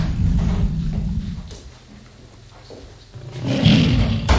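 A hungry stomach growls loudly in a deep, rumbling roar, with a long first burst, a quieter lull, then a second strong growl. No one speaks.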